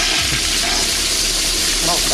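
A toilet flush sound effect: a loud, steady rush of hissing water that holds for about two seconds, with a faint voice briefly showing through near the end.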